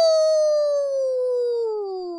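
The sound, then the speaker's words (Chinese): A voice imitates a fire engine siren by drawing out the Chinese word 'huo' (fire) in one loud, sustained wail that glides slowly downward in pitch over about two seconds, with no other sounds. “消防车是怎么叫的？”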